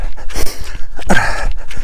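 Heavy, rapid panting breaths of a trail runner, loud, each harsh breathy gasp following quickly on the last with no talking.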